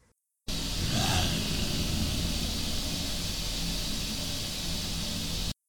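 Dense, steady hiss of static from an EVP recording played back on a recorder fills about five seconds, with a low, rough growl-like rumble churning underneath and a brief wavering tone near the start, then it cuts off abruptly.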